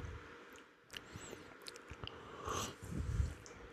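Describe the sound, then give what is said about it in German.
Wet slurping of tea while tasting it, a few short sips followed by a longer, louder slurp near the end, with soft mouth noises in between and no talking. “Ja, schlürf. Jetzt nicht aus.”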